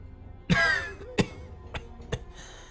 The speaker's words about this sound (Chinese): 就在这时，八子里咳嗽了几声，虚弱的睁开了眼睛。